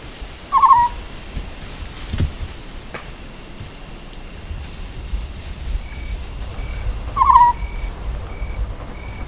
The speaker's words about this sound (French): La nuit, quand je suis là, j'entends un hibou petit-duc euh, qui répond à un autre.